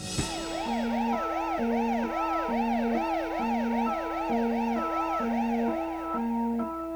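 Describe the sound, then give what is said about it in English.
At the break of a song, an actual steady wailing siren is overdubbed, rising and falling again and again, layered over a sustained two-note organ figure that alternates in an even rhythm underneath. Loud and continuous, with no voices. “Anyway, at the break there, we hear an actual siren overdubbed along with that subliminal two note organ part.”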